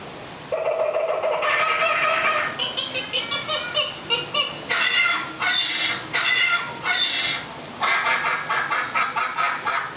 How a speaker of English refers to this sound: Suddenly, the treetops explode in a frenzy of outraged birds.